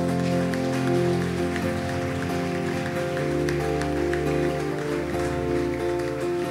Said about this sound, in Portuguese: Aleluia, uma salva de palmas a Jesus.